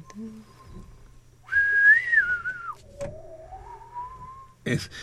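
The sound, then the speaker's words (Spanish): A clear whistle imitates the short melody heard when the extraterrestrials' spaceship arrives in a film: a high held note that wavers, then a lower note sliding gently upward, ending with a brief bump of noise. “Y entonces, donde llega la nave de los extraterrestres, ¿cómo es la musiquita?”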